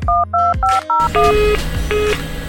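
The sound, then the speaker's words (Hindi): Four quick, crisp telephone keypad tones beep in succession, followed by a few longer dialing tones over a low, noisy background hum, as a call is dialed from a relative's house in Dadar, Bombay, to a hospital in Austria. No one speaks. “और दूसरी एक मजे की बात यह है कि जब मैं ऑस्ट्रिया में लेटा हुआ था मेरे माता पिता बम्बई में दादर में जिस घर में थे हमारे पास लैंडलाइन नहीं था और मेरी हालत पूछने के लिए मेरे मदर को मेरी माता को मेरे मामा के घर जाके फोन करना था”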